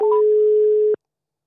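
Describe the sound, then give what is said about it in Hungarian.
A single loud, steady telephone tone, like a call signal heard over a mobile phone line, holds for about a second and then cuts off abruptly into silence. “És mobiltelefonról telefonálunk”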